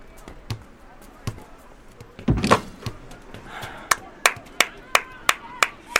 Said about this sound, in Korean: 새끼가 왜 갑자기 박수를 치고 지랄이야.